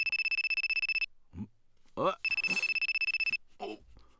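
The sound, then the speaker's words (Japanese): A telephone rings in a bar in rapid, buzzing bursts, a bright steady electronic trill that sounds twice. Short voice sounds and a breath come between and after the rings. “部長はいはいもしもし”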